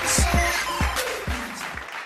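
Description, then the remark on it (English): Short burst of applause: a dense, hissy wash of clapping that fades slightly, punctuated by five or so heavy low thumps in an uneven rhythm, with no one speaking. “Please clap.”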